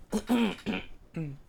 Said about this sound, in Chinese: 噔噔噔噔噔噔噔噔，哎，等下我咳咳嗽。